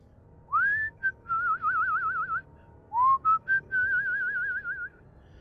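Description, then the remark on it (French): A person whistles a slow, wavering tune alone, in two phrases, each opening with an upward slide into a long trilling note, clear over a faint low hum. “Lorsque le bourreau siffle, c'est que quelqu'un va mourir.”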